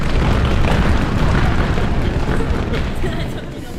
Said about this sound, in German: Wie toll findet ihr euren Chorleiter? In Lautstärke Füße stampfen?